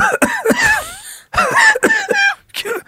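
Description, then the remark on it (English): A person imitates the harsh, wheezy coughing of a ghost with a bad case of COVID-19, several raspy bursts in two quick fits separated by a short pause, loud with strained, whistling breath between coughs. “and that son of a bitch got COVID nineteen and got like a bad case.”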